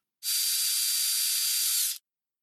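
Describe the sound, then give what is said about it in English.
A dentist's drill going through a woman's teeth gives a steady, airy high-pitched whine and hiss, loud, running for about two seconds before cutting off abruptly. “she thought that the wheezing sound of the drill going through her teeth was peculiar.”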